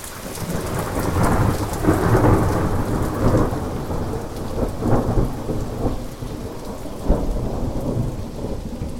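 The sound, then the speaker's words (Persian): Heavy rain pours steadily for an hour in a mountain storm while thunder rolls and rumbles throughout, with a sharper crack near the end; the downpour floods the rivers. A dense storm with no voices. “یک روز طوفان شد و باران به مدت یک ساعت آنقدر شدید بارید که سیل را افتاد آب تمام رودها گلالود شد قسمت کم عمق رود تا دو متر بالا آمد و جریان آب آنقدر قوی بود که سنگ ها را میقلباند از هر طرف جوی و نهر آب جاری شد و صدای رد در کوهستان پایان یافت.”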